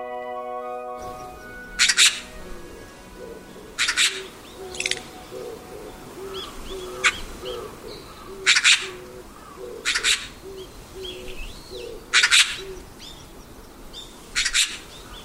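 Eurasian magpie, a roughly 45 cm member of the crow family, calling in a residential area near JR Minami-Arao Station in Arao, Japan: about eight loud, harsh, rasping bursts at irregular intervals, over a soft, low, steadily repeated cooing from another bird in the background.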